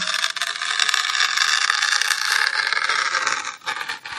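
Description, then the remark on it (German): A continuous crackling and scratching as a fingernail scrapes and tears at the aluminium foil seal on a new Nutella jar, with a bright, papery texture and a brief pause near the end. “Fingernagel, die Alufolie von einem neuen Nutella-Glas ein, einreißen, ritzen.”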